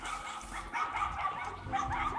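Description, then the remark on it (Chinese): Several dogs, stray dogs and dogs being walked, bark and yip over one another as they meet and greet each other in a tree nursery of tall saplings in Beijing on a cold day: a steady, overlapping clamor with higher whining yelps mixed in, moderately loud and continuous with no pause and no voices. “这附近还有几只狗，野狗和引领的的狗，它们见面的时候就会这样。”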